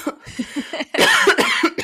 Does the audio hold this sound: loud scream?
no